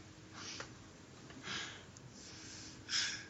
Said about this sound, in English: Ooh ah he's sleeping. yeah, right. Oh, do you hear him snoring? He says, ah. oh man, that's terrible. He's doing it in his sleep.